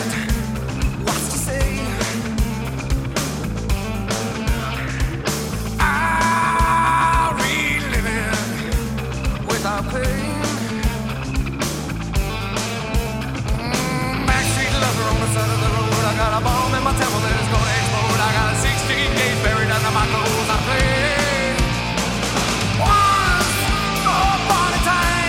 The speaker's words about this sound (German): Für mich ist das eher so ganz klassischer Hardrock von der Anlage.